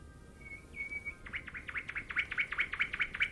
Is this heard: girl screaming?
no